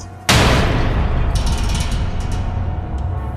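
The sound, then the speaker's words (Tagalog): A light bulb in a room of a house bursts with a sudden, loud pop and gives off smoke, followed by a lingering hiss and a few faint crackles as the noise slowly fades. No one speaks. “Bumalik siya sa kwarto kung nasaan ang bata at ang asawa niya at laking gulat nila nang biglang pumutok ang ilaw at umusok.”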